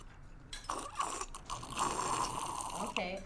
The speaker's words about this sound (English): Yeah, take a take a sip of that drink. Tell us what you think about it.